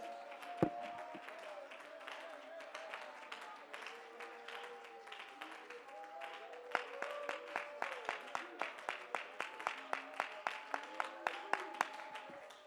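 An audience claps their hands to give God praise, scattered at first and then settling into a steady, rhythmic beat, with voices and sustained tones murmuring underneath.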